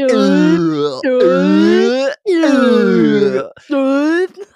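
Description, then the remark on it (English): A voice imitates a flipped groan tube, making four loud, drawn-out moaning tones that slide and waver in pitch, separated by short breaks. “is it feels like the background music that they use is you know those tubes that when you flip them over it's like”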